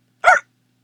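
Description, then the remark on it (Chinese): A single short, sharp hiccup, voiced and slightly yelping in tone, sounding on its own against silence, likely a person imitating the hiccup of a little princess in a story after she drinks a big gulp of mineral water. “女仆小卷毛大叫起来：“我们的小公主打嗝了！”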